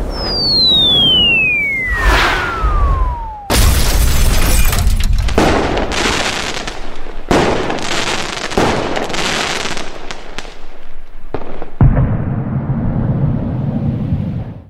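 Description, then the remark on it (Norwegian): A falling whistle gives way to several loud, spraying firework rocket bursts in quick succession, then a deeper, heavier bang with a rumbling tail near the end. No voices. “For å få to poeng til må dere svare på hvor mange raketter som går av i kollisjonen.”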